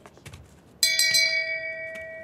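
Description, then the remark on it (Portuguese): A single small bell struck once, its bright metallic tone ringing out and slowly fading, preceded by a few soft background clicks. “Bota o sininho aí”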